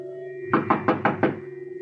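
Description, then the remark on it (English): Five firm knocks rap on a wooden apartment door in quick, even succession, fairly loud, over a low steady hum in the background. “She lived in the apartments across the street, and I went over and knocked.”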